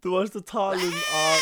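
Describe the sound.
A person speaks briefly, then lets out a drawn-out, wavering bleat, a fairly loud human imitation of a goat that lasts about a second.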